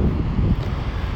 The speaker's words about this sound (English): Ah, I hope you can hear that. And yes, indeed, that is the sound of the sea. I'm at the beach. I can't believe it. Just an hour out of Porto, and I'm at an incredible beach with uh, lovely weather.